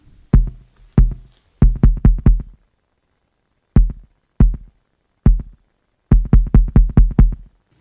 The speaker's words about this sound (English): So I have a sample here of the 808 kick, and there is one in the drum rack of Ableton, but I just like this kick a little bit better.